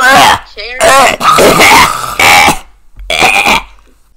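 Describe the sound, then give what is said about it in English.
A person clears their throat in a few loud, rough, raspy bursts with short gaps between, with no words spoken. “No, I was clearing my throat.”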